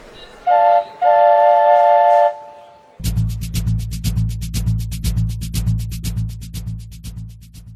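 A train whistle sounds twice, a short toot then a long steady blast, followed by the rumbling roll of a moving train with a steady rhythmic clatter of wheels on the track.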